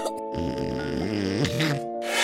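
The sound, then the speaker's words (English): A person imitates snoring with a drawn-out, rumbling, nasal grunt that wavers in pitch, then ends with a short breathy snort. The voice is fairly loud, with no other talking. “I love you, but you snore.”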